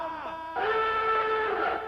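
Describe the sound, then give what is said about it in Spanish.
A loud electronic alarm jingle used as a programme's theme tune, of sustained, buzzy synthesized tones, jumping to a fuller, louder chord about halfway through and holding steady to the end, with no voices. “Esta es la alarma, alarma.”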